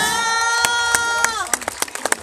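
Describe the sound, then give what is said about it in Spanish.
Scattered, uneven hand claps at a parade for the passing contingent of the municipal workers' union Sindicato 20 de Noviembre, sharp individual pops over a steady held musical tone that fades out partway through, leaving the loose clapping to continue on its own. “Un fuerte aplauso al sindicato 20 de noviembre por el bienestar y la protección del trabajador municipal”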